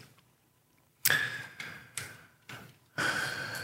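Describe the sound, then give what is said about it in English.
Paper Bible pages rustle and flip in a short series of crisp, papery bursts after a moment of quiet as people turn to James 5, moderately loud, with no one talking. “I hear a few rustling pages.”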